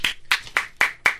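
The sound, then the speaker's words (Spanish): Five sharp hand claps in a steady, quick rhythm, evenly spaced, with no voices over them. “Sí, porque el artista vivimos del aplauso, señores.”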